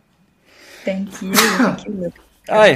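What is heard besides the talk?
sneeze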